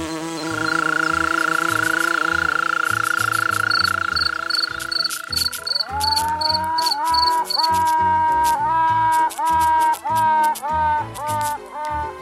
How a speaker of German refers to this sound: Das war ein kurzer Zusammenschnitt von Hummeln, Käfern und Grillen und was das Tuten am Schluss war, das war tatsächlich auch ein Insekt, das verraten wir später noch.